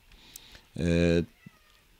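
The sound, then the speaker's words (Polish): A single short, loud meow from a female cat sounds in the middle of an otherwise quiet moment, lasting about half a second with a bright, tonal quality. “E, o, przyszła kotka. No co chciałaś?”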